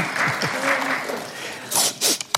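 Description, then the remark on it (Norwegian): A voice murmurs briefly, then a short, loud burst of hand clapping for an original Danish broadside print from 1783 being shown, a few quick rounds of crisp claps lasting under a second before stopping. “Og det er veldig fint å klappe for et trykk også.”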